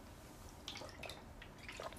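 Soft wet sipping and small slurping clicks as someone takes a quiet drink of water, a few brief liquid sounds over a faint background hush.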